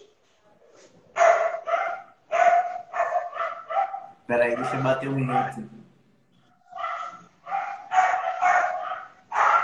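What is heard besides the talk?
dogs barking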